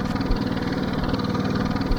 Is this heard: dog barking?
no